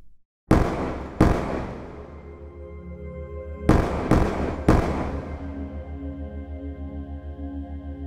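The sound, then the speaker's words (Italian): Five loud, sharp pistol shots ring out in an apartment at dawn on 26 June 1984, in an uneven pattern, two close together and then a quick burst of three, each leaving a reverberant tail over a steady low drone. “Lori Marie Roico è una fotomodella americana di 21 anni che all'alba del 26 giugno 1984 sente esplodere cinque colpi di pistola nella casa di cui è ospite.”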